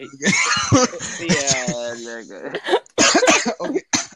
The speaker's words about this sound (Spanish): Déjame, déjame parar de toser, que estoy aquí atosigado cerveza.